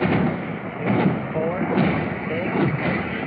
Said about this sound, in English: Do you see a bomb dropping? Let's hear how many explosions we hear.